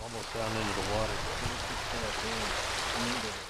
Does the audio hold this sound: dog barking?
no